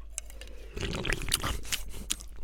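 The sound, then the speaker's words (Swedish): Crackly crunching of chips being chewed, a dense burst of crisp snaps and wet squishes that starts abruptly and continues steadily, with no talking over it. “Du kan smaska och jobba.”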